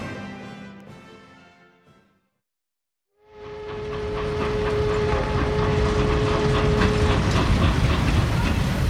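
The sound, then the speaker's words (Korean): A train pulls into a station, rumbling in with a broad mechanical roar swelling after a brief silence, with a sustained whistle-like tone riding over the clatter before it settles into a steady, loud rolling noise. “아, 기차가 들어오는군.”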